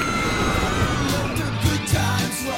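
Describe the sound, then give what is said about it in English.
A crowd of people screaming and whooping on a fast amusement park ride, their yells rising over a steady mechanical rumble and rushing noise, loud throughout. “And 4% while you're screaming at the amusement park.”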